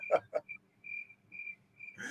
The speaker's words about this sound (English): We have the cricket sound effect. It's crickets out there.